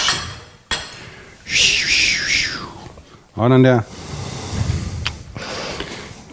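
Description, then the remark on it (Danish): Wine, a Syrah from the northern Rhône from Domaine Le Bruyère, pours into a glass for about a second, a bright splashing trickle whose tone wavers and rises as it fills, followed by a short spoken remark and faint clinks. “Nu hælder jeg op her, så ja.”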